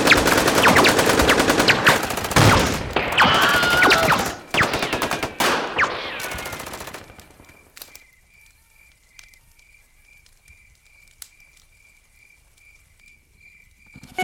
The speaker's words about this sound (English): need a fucking hail of gunfire at this point.